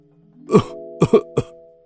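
An old male teacher coughs in a rough, hoarse fit in a classroom after saying only a few words: one heavy cough, then a quick pair and a final weaker hack, with a low, strained voiced rasp between them. No one speaks.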